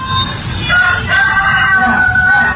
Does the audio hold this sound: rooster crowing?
yes